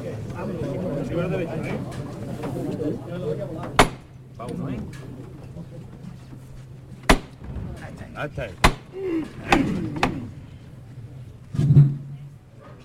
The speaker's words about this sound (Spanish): Y esos tambores destemplados del luto de esta jornada de duelo.